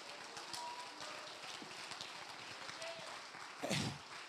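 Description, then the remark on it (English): A crowd claps their hands and shouts to the Lord, a dense, continuous patter with scattered voices calling out underneath and one louder shout rising briefly near the end. “Clap your hands and shout to the Lord tonight.”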